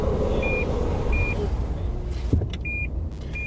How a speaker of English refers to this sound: I don't know if you managed to hear that. I had to put the microphone down. Sorry about the beeping. That was the Lexus Park assist because I pulled up very close to him so I could talk to him.